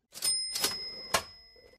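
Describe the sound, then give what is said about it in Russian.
A coin is dropped into a jar as a fine, landing in three quick bright clinks that leave a thin metallic ring hanging in the air. It is fairly quiet, with no voices. “если мне все-таки очень сильно захочется о них поговорить, то мне придется вкинуть монетку и все-таки высказаться.”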